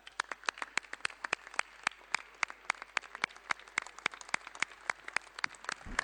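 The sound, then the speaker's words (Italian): Parliamentary applause, dedicated to the Carabinieri, investigators and all who helped bring about the arrest of Matteo Messina Denaro: a steady run of sharp, crisp claps at a fairly regular rhythm, roughly several per second, sustained for about six seconds with no voices over it. “Chiedo che per le donne e per gli uomini dell'arma, per gli inquirenti e per tutti coloro i quali hanno prestato un valido contributo per condurre a termine l'arresto di Matteo Messio Di Naro, sia dedicato un caloroso applauso.”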